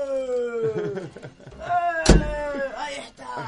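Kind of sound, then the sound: household object, door being slammed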